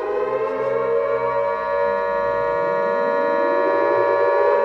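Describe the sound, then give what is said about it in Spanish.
An air raid siren wails steadily over a city under a total blackout ordered for fear of an air attack, after a strange object is sighted; a loud sustained tone rich in harmonics, with a lower pitch sweeping gradually upward underneath partway through. No voices are heard. “Al avistar el extraño objeto saltaron las alarmas.”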